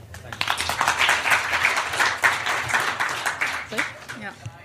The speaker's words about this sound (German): Wow, kleiner Applaus.